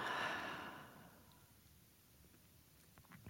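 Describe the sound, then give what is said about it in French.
A deep breath with a strong airy rush: an inhale through the nose filling the belly and chest, then a long exhale through the mouth that slowly fades into near silence and faint rustles. “Puis prenez une profonde inspiration par le nez en gonflant le ventre et la poitrine et soufflez par la bouche.”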